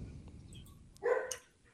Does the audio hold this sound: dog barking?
yes